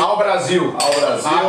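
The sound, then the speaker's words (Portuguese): Glasses clink together in a toast, a couple of bright ringing chimes, while people speak a short toast over the sound. “Vamos brindar aqui mais uma vez.”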